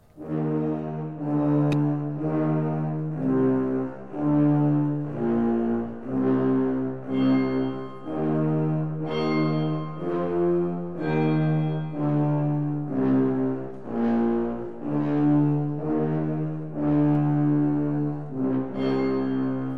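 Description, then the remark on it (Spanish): Deep orchestral bells toll in slow, steady strokes, each loud ring hanging and overlapping the next against a low sustained orchestral drone, with no voices; the death bells of 'Dream of a Witches' Sabbath', the fifth and final movement of a Berlioz symphony. “Se oyen las campanas de la muerte.”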